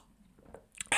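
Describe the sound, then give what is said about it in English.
A quick slurping sip of espresso, a short breathy burst arriving after a near-silent moment, with no talking. “So a little sip of the espresso”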